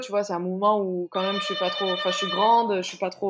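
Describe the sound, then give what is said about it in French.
A doorbell rings with a steady electronic tone lasting a couple of seconds, clearly audible beneath a woman who keeps talking over it. “Excuse-moi, c'est la sonnette.”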